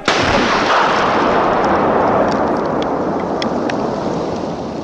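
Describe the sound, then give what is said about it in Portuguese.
A powerful bomb explosion in a bookstore about two blocks away bursts out at once and rolls into a loud, sustained roar of rumbling debris that slowly fades over several seconds, with no voices present. “Um grande estrondo foi ouvido a cerca de duas quadras dali, seguido de uma construção em chamas e uma fumaça enorme advindo do local.”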